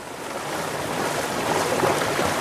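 Steady water sloshing and lapping against an electric-boat landing stage on the Königssee, Germany, a broad continuous wash that swells slightly louder toward the end, with no voices.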